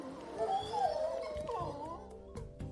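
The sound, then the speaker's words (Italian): Wolves whimpering and yipping, with high wavering whines that rise and fall, broken by a few short sharp yips and soft scuffling, moderately loud. “Il bello però è che tutti i lupi del branco partecipano alla crescita e alla cura dei cuccioli.”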